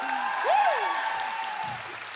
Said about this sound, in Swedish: Att dra igång en applåd betyder att om en applåderar, applåderar alla.